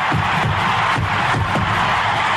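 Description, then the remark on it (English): A sellout ballpark crowd roars continuously in a dense, loud wash of cheering and shouting as Henry Aaron hits his 715th home run, with scattered whoops and bursts rising above the sustained noise. “The sellout crowd is cheering.”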